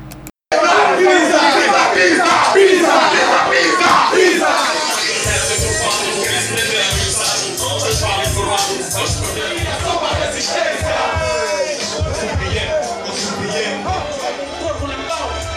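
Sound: crowd shouting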